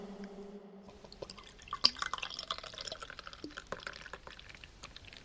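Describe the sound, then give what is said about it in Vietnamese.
Beer is poured into a glass for a father by his children at a family dinner at a guesthouse overlooking the sea, a steady splashing pour with bubbly, crackling fizz lasting several seconds after a brief low hum at the start. “Cho cha một cốc. Không sao đâu, các con rót cho cha đi.”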